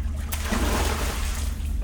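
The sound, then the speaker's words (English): River water splashes and rushes in a steady, continuous wash, moderately loud, with a low rumble underneath and no voices, at a river in Tweedsmuir Park about 45 minutes from Bella Coola, where bears dive and splash looking for salmon. “Visitors can watch from a platform as the bear dive and splash in the river looking for salmon swimming by.”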